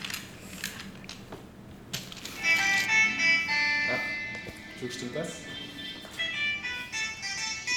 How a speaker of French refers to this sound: c'est mon téléphone.